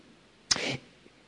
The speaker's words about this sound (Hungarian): Egészségedre.